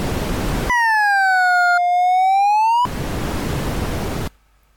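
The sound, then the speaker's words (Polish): A screen reader's Audiotrace feature, started with Alt+T, sonifies a calculator graph of x squared as a single buzzy, harmonic-rich tone that dips slightly in pitch and then rises, framed by bursts of steady hiss before and after. “Audiotrace H, playing graph.”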